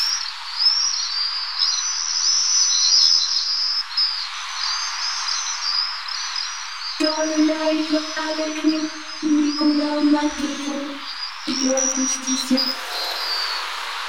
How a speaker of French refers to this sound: Alors le martinet, lui, il chasse en groupe, hein, et quand il chasse, on les entend crier, très fort, tous ensemble.